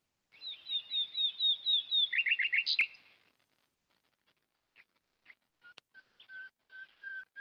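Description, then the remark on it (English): Nightingale song rings out: a fast run of repeated bright notes and a rattling trill, then scattered calls and a long, steady whistled phrase after a brief pause. “Sí, sí, these nightingales o ruiseñores sang today a lot because it's the Thursday, yay.”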